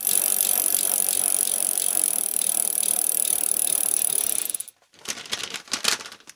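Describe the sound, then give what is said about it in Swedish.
A lottery tombola drum is spun to draw a paper slip naming a contest winner: a steady, dense rattling whir for several seconds, an abrupt stop, then a few short, uneven bursts of clattering as the contents tumble and settle. “Vi kör igång tombolan här.”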